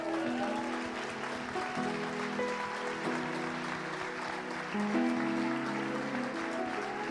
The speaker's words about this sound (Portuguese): Pode aplaudir o Senhor aí.